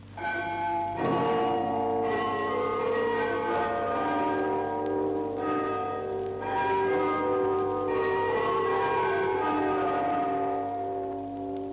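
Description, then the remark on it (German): Tower bells in Russia chime the Internationale for the anniversary of the October Revolution, a slow melody with rich overlapping tones ringing and sustaining into one another. The sound is steady and resonant throughout, with no voices. “Vom Glockenturm tönt zum Jahrestag der Oktoberrevolution die Internationale.”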